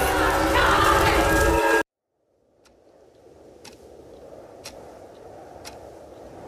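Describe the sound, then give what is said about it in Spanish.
After a loud, dense burst of noise cuts off abruptly, a clock on a bedside table in a silent cabin ticks softly about once per second over a low, steady rush of wind that slowly swells. “Solo se escuchaba el viento y el reloj sobre la mesa de noche.”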